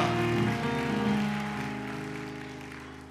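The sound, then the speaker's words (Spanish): An audience claps steadily in a dense, rain-like patter over sustained keyboard chords, with no talking. The clapping stays strong, then eases slightly toward the end. “Aplaude fuertemente, dale eh, gloria a Dios.”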